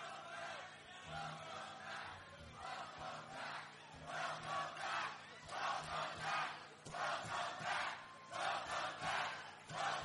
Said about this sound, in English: You, you can hear the chants.